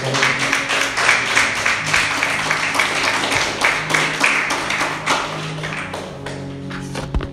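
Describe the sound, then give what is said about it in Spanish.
An audience applauds the Lord steadily, a dense wash of many hands clapping with sharp individual claps standing out, sustained throughout and tapering slightly at the end, with faint tonal background sounds beneath. “Alguien tiene que dar un aplauso al Señor.”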